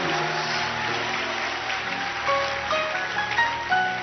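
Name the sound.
audience clapping hands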